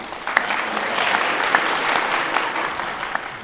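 A crowd claps steadily, dense overlapping applause at a fairly loud level, with a few sharper individual claps standing out, and no voices.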